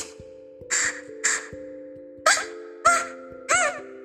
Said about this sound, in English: Uh, where is that noise? That sounds like a street dog coming from.